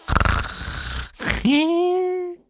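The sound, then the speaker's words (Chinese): A voice imitates a wife's all-night snoring: a rough, rattling inhale lasting about a second, a brief pause, then a long whistling, tonal exhale that rises and holds steady before cutting off. “他晚上睡觉打了一宿的呼噜啊啊，那是此起彼伏啊”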